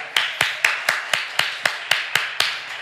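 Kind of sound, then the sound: crowd, applause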